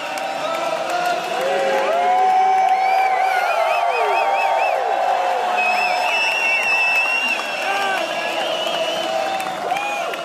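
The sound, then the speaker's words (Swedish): A golf crowd sings the American national anthem together as Phil Mickelson tees off on the 10th hole of his match, with Mickelson singing along; a loud, sustained chorus of many voices with wavering, drawn-out notes filling the whole stretch. “du vet, då sjunger hela publiken ja. amerikanska nationalsången och Phil Mickelson sjunger med Aha.”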